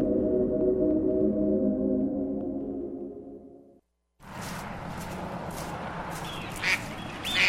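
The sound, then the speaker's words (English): A duck quacks in a loud, nasal, buzzy run lasting a few seconds, then cuts off abruptly. After a brief silence comes a wash of noisy outdoor ambience. “Whoa, check out that duck.”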